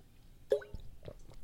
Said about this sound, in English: Excuse me, grabbing, grabbing a sip of water here.